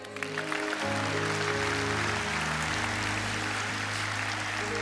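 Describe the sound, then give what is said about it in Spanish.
An audience applauds for Christ in dense, continuous clapping that stays loud and even for nearly five seconds, while low sustained musical notes hum steadily underneath. “Dar un aplauso a Cristo.”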